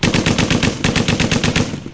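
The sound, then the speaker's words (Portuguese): A rapid, steady string of loud gunshots from clay pigeon shooting, about two dozen quick cracks in a row that trail off at the end, with no voices. “Enquanto isso, fica imaginando que é o tiro ao ao pombo, eu tiro ao plango para fazer pastel.”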